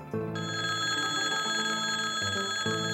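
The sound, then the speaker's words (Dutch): A loud electric bell rings continuously, a bright sustained metallic jangle with steady tones, briefly shifting pitch partway through, with no voices: the special bell of the Dutch House of Representatives (Tweede Kamer) calling members to hurry to the plenary hall for a vote. “Kamerleden haasten zich naar de plenaire zaal bij het horen van een speciale Kamerbel.”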